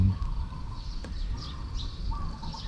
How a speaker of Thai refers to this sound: เสียงนกเป็นธรรมชาติ เป็นเพียงแค่เสียงกระทบแล้วก็ดับไป